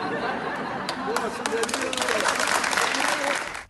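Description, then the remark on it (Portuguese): A group claps steadily for several seconds as a 70-year-old patient leaves the hospital, the applause growing a little denser, with voices chattering and a few laughs mixed in. “O paciente, Adelino Gomes Silva Filho, de 70 anos, recebeu uma salva de palmas ao deixar o hospital.”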